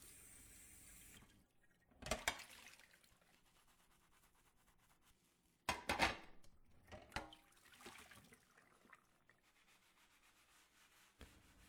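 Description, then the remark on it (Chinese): Dishes being washed at a sink: a short rush of running tap water, then intermittent scrubbing and rubbing bursts with a few sharper clatters, moderately loud, with no talking. “我去洗碗。”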